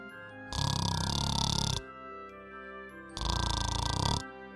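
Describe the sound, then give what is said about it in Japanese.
A voice imitates a bed snoring as it sleeps: two long, loud, raspy snores separated by a short pause, with soft background tones between them. “グーグーグーふが c a h pointed to the bed and said, He's asleep.”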